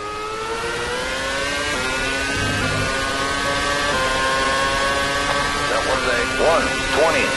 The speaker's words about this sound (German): Auf okay, und dann spiele ich jetzt mal kurz das brüllende Geräusch von Formel 1 Autos ein.